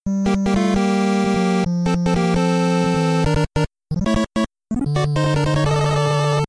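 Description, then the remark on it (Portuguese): Chiptune sound effects from the 8-bit video game Mega Man, such as the explosion when Mega Man dies and the sound of picking up a life, created by Manami Matsumae, play in quick succession: buzzy square-wave tones, a steady low drone, sharp bleeps and short bursts with brief silent gaps, loud. “O efeito sonoro de quando o Mega Man morre aquela explosão. O efeito sonoro de quando ele pega a vida.”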